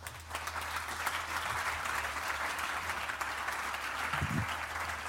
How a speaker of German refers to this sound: Applaus für den mutigen Frederik Richter.